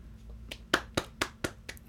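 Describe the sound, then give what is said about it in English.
An applause sound effect: a short run of single hand claps, about five or six sharp, evenly spaced slaps at a steady beat, fairly quiet over a low background hum, with no voices. “God damn, I was waiting for BJ to hit the hit the applause. Thing.”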